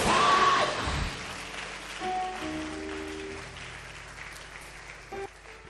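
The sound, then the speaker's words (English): An audience claps hands together during a sermon, at the preacher's call, in a dense, steady wash of applause, loudest at the start, while sustained keyboard-like tones drift in underneath. “you are clapping hands, clap it well.”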